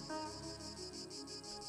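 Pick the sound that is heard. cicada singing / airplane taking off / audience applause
cicada singing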